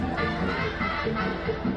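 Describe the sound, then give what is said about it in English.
A dense, continuous wash of crowd babble from thousands of people packed into a vacant lot to see Colosio, with cumbia music playing, many voices overlapping into a steady roar with no single speaker standing out, fairly loud throughout. “The crowd is so large and the music so loud that at first most people don't realize Colosio had been shot.”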